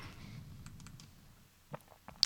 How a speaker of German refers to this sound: Eine Liste, klick, klick, klick.